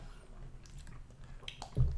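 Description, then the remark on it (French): A small sip of beer being tasted: faint wet mouth and lip sounds, a soft swallow, then a brief louder low thump at the end. No one speaks. “Puis après ça, tu goûtes le, le, petit gorgée, là.”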